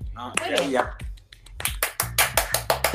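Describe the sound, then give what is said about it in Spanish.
A brief round of hand clapping for a teacher, steady, with sharp claps falling in a quick, even rhythm right after a moment of voices and laughter. “un aplauso hoy.”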